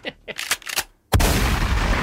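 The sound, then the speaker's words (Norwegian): A short sound-effect jingle: a few quick rising bursts, then one loud gunshot blast that cracks sharply and rolls into a sustained, noisy roar until the end. “Noen skal få dette skuddet.”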